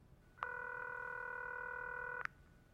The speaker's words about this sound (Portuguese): Thiel sabe o que tem que fazer. Ele engole o orgulho e disca o número de Musk.